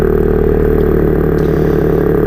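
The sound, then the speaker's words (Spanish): In a laboratory, scientists force air through the larynx of a baleen whale found dead and stranded on a beach, making a loud, steady, low rumbling drone with a rattling, engine-like buzz, like an idling engine, continuous throughout with no voices. “Esto es la laringe de una de esas ballenas al pasar el aire.”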